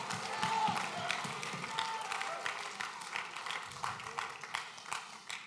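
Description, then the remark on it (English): An audience claps steadily and energetically in dense, continuous applause as praise to God, with scattered whoops and shouted cheers rising above the clapping throughout the few seconds. “If that sounds like you, take 60 good seconds one more time and give God the mightiest praise.”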